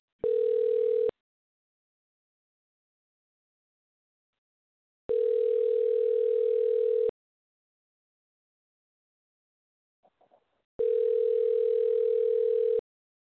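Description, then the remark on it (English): A steady telephone dial tone sounds in three long bursts of about two seconds each as a phone call is placed, separated by silent gaps, with a faint click just before the last one. No one speaks. “You dial, and we should be able to hear it.”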